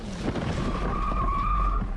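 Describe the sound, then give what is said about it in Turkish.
A motorcycle's tires skid in slowing traffic behind a taxi, a sustained high screech lasting about a second, over loud, steady road and engine noise. No clear impact follows. “Hiç durmadan yoluna devam ederken duraksayan trafiği hesaplayamadı. Öndeki taksiye çarpıp takla attı.”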